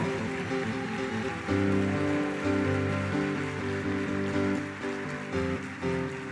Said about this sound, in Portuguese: Forte esse aplauso para o Senhor.